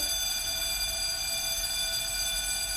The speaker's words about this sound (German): Ganz schrecklicher Ton, oder? Ganz schrecklich. Oh mein Gott, was ist was das? Das ist der das? Klingelton, wenn irgendwie die Stunde vorbei ist. Also äh, Pausendong. Wie schrecklich ist bitte oh dieser Ton, oder?